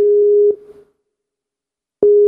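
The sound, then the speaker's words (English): A steady electronic ringback tone sounds loudly for half a second, trails off into about a second of silence, then resumes abruptly, the repeating pattern of an outgoing Skype call ringing with no talking. “Ringing, ringing.”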